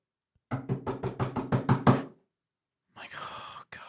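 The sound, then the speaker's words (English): A quick, steady series of about eight firm, loud knocks on an apartment door, followed after a short pause by a brief, different noisy sound. “On my door, and I'm like, "This is recently." I'm not expecting anybody.”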